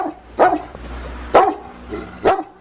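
A dog barks three times at spaced intervals, sharp, with short quiet gaps between the barks and no talking.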